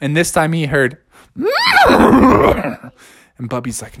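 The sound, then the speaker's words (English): A person speaks briefly, then does a loud vocal impression of a horse's whinny: a rising squeal breaking into a long, shaky, fluttering neigh, followed by more talking. “I know what that noise is. It's a horse, and I'm not interested.”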